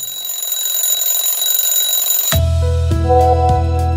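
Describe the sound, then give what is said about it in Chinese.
An alarm clock goes off at 6:30 in the morning after a faint, steady high whine: a loud, buzzy electronic tone that steps between pitches a couple of times and keeps ringing until the end. “我的手机也一直处在安静的状态，一直到早上六点半，闹钟响。”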